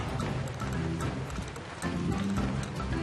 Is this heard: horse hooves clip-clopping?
yes